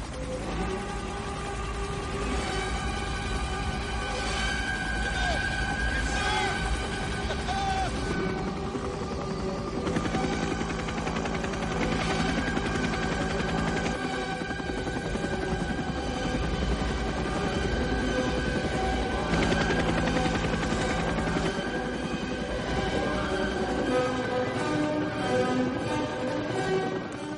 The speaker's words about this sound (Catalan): Doncs sí, i Coppola, conscient d'això, va comparar el que van fer els americans a Vietnam amb els nazis, amb una acció tan senzilla com la de posar esta música just el moment que els helicòpters ataquen.